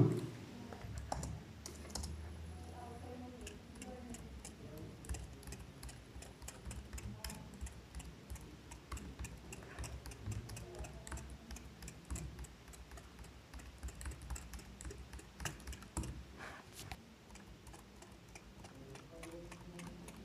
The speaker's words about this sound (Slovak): No ale vyskúšame si aj písanie. Teraz budem písať na notebookovej klávesnici, aby to bolo počuť, ako sa riadok posúva.